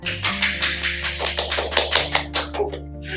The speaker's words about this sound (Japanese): 二人で拍手。